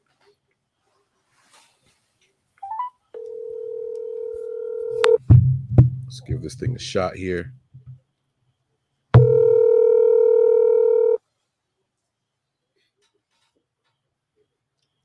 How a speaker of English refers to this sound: If it's too loud, tell me to lower it. And if the call is just right, Give me that thumbs up, okay? All right, here we go. Let's go ahead and phone a friend here. Let's see if this works.